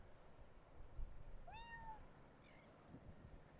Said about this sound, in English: Oh look, here's a cat. Aww. He's got a collar on too.